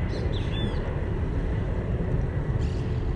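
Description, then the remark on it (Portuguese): A loud, steady roar of an airplane passing overhead at a beach beside an airport, broad and rumbling with heavy low-end, holding constant throughout with a windy, outdoor quality and no talking. “o avião passando.”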